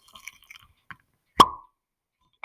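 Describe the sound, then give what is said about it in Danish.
A single crisp pop of a cork pulled from a bottle of Graham's 10-year Tawny port, fairly loud, with a short hollow ring after it amid quiet handling noises. “Det er jo en lyd, man ikke bliver træt af.”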